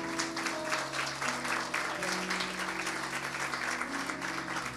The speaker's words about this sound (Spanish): Y este aplauso se lo damos a todos los que han tomado esta decisión.